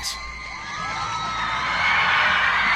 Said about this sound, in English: 3,000 screaming teenagers are at New York's Kennedy Airport to greet, you guessed it, ….